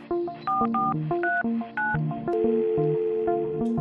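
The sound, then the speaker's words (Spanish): A quick run of telephone keypad dialing tones, one beep after another in a steady rhythm, fairly loud, with no one speaking, for a call over the telephone of La Picota prison. “Entonces conversamos por el teléfono de la picota.”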